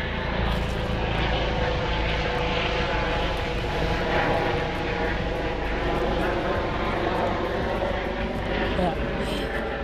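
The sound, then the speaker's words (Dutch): A helicopter roars overhead near a hospital and an airport, heard while out walking, its loud, steady engine and rotor drone filling the whole stretch with a dense, constant rumble that barely rises or falls. “helikopter.”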